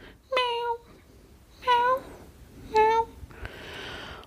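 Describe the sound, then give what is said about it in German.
A voice imitates the plaintive meow of a cat trapped behind newly repaired riding-arena boards, three times in close succession, each call short and whiny, followed by a soft breathy exhale; fairly loud. “ich glaube, ich glaube, ihr habt die Katze da drin vergessen.”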